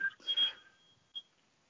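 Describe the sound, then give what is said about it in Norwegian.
A telephone rings faintly: short, high electronic tones chirp briefly, then a single softer blip follows after a pause, with no voices present. “Nå ringer telefonen her.”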